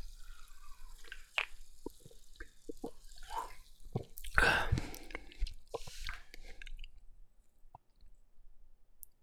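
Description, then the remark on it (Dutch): Sipping of a fizzy watermelon-flavoured Fanta soft drink: wet mouth clicks and small liquid drips, then a louder slurping gulp with a hissing fizz midway, fading to quieter swallowing sounds. “Neem eens een slokje.”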